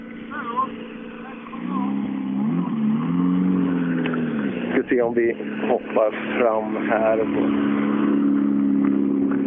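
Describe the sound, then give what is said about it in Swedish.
A mid-1990s Mitsubishi rally car, Bäcklund's old car, drones loudly, its engine pitch climbing and dipping as it revs, then holding a steady high whine while a man speaks briefly over it. “Eh, det är Bäcklunds gamla bil.”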